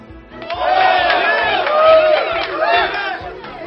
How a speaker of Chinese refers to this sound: 周围响起了一片掌声，原来是森林里的动物们看见了飞到空中的南瓜，就都跑来了。